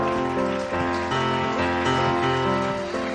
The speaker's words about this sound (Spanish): ¿Cuántos lo creen que aplaudan al Señor?